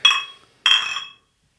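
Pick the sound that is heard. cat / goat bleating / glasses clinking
glasses clinking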